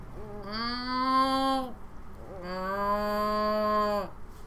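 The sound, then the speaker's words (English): A person imitates a cow, giving two long, drawn-out moos, the second one longer and slightly lower, with a short pause between them. “okay, now cow.”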